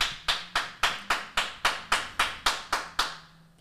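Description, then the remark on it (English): A steady, evenly timed run of about eleven sharp hand claps, loud and crisp like one person clapping a brisk beat, each clap decaying quickly before the next, then falling silent. “I don't know why we can't just do normal round of applause.”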